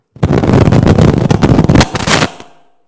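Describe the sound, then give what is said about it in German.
A loud, harsh electrical crackling burst from a loose contact, rapid dense popping and sputtering for about two seconds, then cutting off with a brief fading tail. No voices. “Es ist ein Wackelkontakt.”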